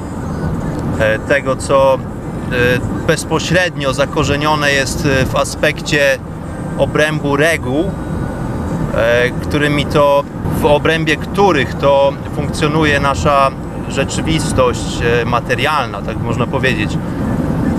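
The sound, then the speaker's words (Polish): Steady, low rumbling road noise from a right-hand-drive car being driven on a motorway in England runs continuously beneath a person talking throughout, never rising above the voice. “W ogóle przepraszam za szumy, dlatego że jestem na autostradzie, prowadzę właśnie samochód e, na autostradzie.”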